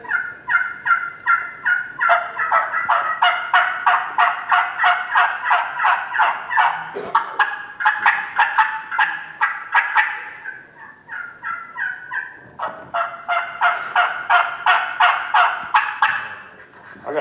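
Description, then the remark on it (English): Several hen turkey calls are run together in overlapping bursts of rapid, raspy yelps, loud, pausing briefly twice before starting up again. No one speaks. “One of my best things that, that I like to do is I like to run multiple calls. I like to make that old gobbler think that he's got two hens up there instead of one hen.”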